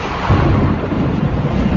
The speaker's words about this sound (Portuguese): Raios, trovões, tempestade. As ondas do mar ficam nervosas. Os trovões são mais intensos. Os raios estouravam por todos os lados, provocando uma onda de pânico e pavor.